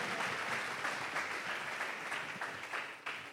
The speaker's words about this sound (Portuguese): Uma salva de palmas para esses homens. Graças a Deus.